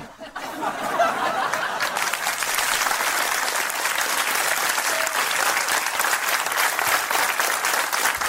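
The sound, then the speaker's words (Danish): A big crowd of thousands of parents applauds steadily in a large circus tent, a dense wash of many hands clapping that swells in within the first second and holds at an even, loud level, with a few faint laughs mixed in. “Det er jo typisk pædofile groomer prøver diskret at påvirke børn i et stort cirkustelt foran tusindvis af klappende forældre.”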